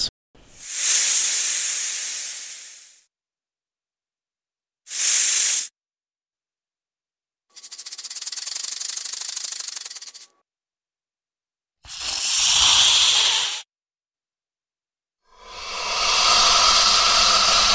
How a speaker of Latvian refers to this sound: Nu, jā, kā čūska. Tā bija čūskas valoda.